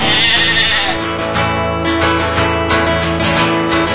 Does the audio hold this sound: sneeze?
no